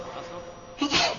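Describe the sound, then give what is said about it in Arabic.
A single sharp sneeze bursts out near the end, loud, after a stretch of low murmuring background noise. “يرحمك الله”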